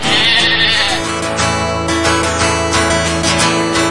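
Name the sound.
sheep bleating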